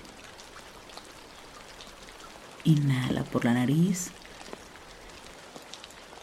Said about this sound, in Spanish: Y en este momento te pido que tengas la certeza de que afuera comienza a llover. La lluvia se hace presente.